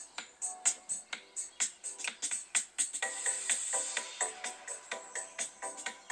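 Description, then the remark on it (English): Upbeat electronic background music from the Zwift fitness app, used with a treadmill, with a steady, pulsing beat and bright synth tones, plays on its own with no one talking over it. “You can hear the uh, Zwift music in the background there.”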